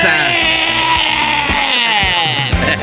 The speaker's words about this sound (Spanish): Así gritan, ¿no? Los camellos.